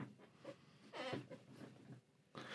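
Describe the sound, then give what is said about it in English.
An office chair creaks a few times, short squeaky groans with one longer, louder creak in the middle, fairly quiet and with no talking. “Oh, by the way, last week Uh, I apologise if you could hear the sa- the creaky sound of my chair, which is that noise.”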